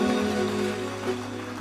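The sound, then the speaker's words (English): An audience claps for the Lord in a dense, steady patter, with sustained organ-like tones humming underneath throughout. “give the Lord a clap”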